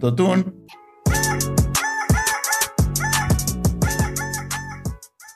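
A rooster crows loudly, a long cock-a-doodle-doo in several harsh, rising and falling bursts, after a brief voice at the very start.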